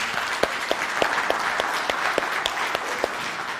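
A crowd applauds steadily, with dense overlapping handclaps and a few sharper individual claps standing out at a loose, irregular rhythm, sustained at a moderate level throughout.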